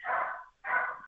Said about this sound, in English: and I apologize if you hear this dog barking.